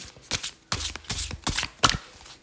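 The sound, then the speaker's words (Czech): Tarot cards being shuffled and further cards drawn during a reading, in a series of quick, crisp riffling bursts, each a short papery rush of sound, with brief pauses between them and no voices. “Uh, co se týče krátkodobé budoucnosti, já se na to ještě dívám, vytáhneme ještě další karty.”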